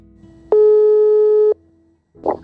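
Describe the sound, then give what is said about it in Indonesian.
A single steady electronic ringback tone of an outgoing phone call, lasting about a second, loud and clear, followed by a brief muffled burst of sound. “Tanpa basa-basi lagi, langsung aja kita telepon orangnya.”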